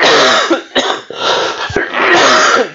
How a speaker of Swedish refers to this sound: Ja, nu kommer ni höra två stycken som hostar och kräks här inne.